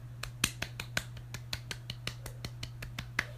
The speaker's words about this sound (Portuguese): Palmas. Você precisa de palmas, gente. Palmas, assim, aplausos. Vocês precisam de, ó. Outra salva de, de palmas, porque você ter sonho, né?